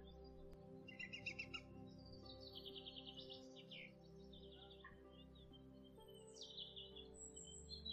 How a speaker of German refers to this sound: Du hörst die Vögel und spürst die frische, klare Luft auf der Haut.